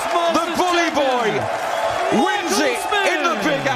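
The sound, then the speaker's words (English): A darts crowd at Madison Square Garden cheers and roars steadily as Michael Smith throws the winning dart to take the US Masters, many voices shouting over one another in rising and falling tones. The din stays loud and dense for a few seconds without letting up. “That was the crowd when English superstar Michael Bully Boy Smith threw the winning dart to take out the US Masters earlier this year.”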